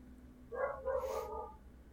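A dog left outside barks faintly, two quick yelps running into a longer drawn-out cry, with no one talking.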